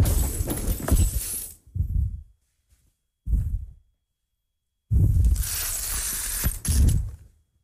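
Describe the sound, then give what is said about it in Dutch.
Loud crunching and grinding of broken glass as a woman jumps down from a chair with both feet onto real glass shards and shifts her full weight on them, in several bursts separated by brief silences, with a long gritty crunch near the end. “Controleer dat het echte scherven zijn.”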